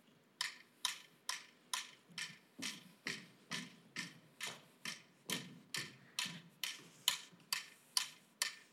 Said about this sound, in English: Then we also asked them to walk to metronomes, and it looked like this. And then we try to investigate if changing the tempo of the music or the metronomes also affected their walking and synchronization, such as this.